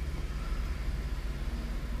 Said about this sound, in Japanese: 今ちょっと車がもうねあの目の前で駐車場の中でカオスな状態になんか逆走しよう人がおったりとかで今ちょっとカオスになっとって見てるんですけどね、まあ、ちょっと気が散ってますね